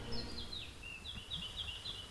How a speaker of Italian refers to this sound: E soprattutto ancora di più, gli uccellini!